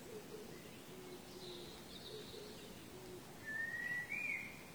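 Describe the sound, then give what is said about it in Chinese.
Sparrows chirp faintly in the woods on an overcast, humid day after morning rain, over a steady hiss of background noise, with one clearer, higher-pitched call standing out near the end. “这上面还有一些小鸟的，听的大部分的还是麻雀的声音。”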